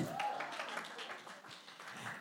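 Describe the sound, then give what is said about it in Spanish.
A burst of audience applause, a steady, dense crackle of many hands clapping that holds for a couple of seconds at a moderate, even level, with a faint voice briefly underneath. “Muy bien, un aplauso para el que la cachó.”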